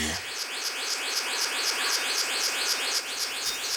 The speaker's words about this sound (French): Souvent, seul les sons révèlent des indices de vie. paradisier bleu mâle en quête d'une compagne.